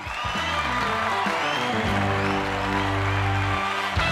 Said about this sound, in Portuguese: Enfim, essas são as perguntas e a gente fecha o último bloco com uma salva de palmas para mim.